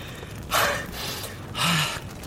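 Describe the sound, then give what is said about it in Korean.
Heavy, labored gasping for breath, two strained, breathy inhales separated by a short pause, with no talking. “이렇게 숨쉬기도 버거운 걸 어떻게?”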